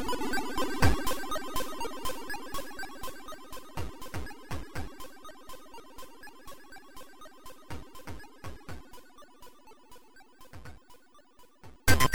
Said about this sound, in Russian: А теперь я представлю вам возможность немного отдохнуть от моих повествований и насладиться прекрасной чип-музыкой.